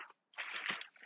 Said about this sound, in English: So, if you hear any rustling in the background, that's just me getting some stuff.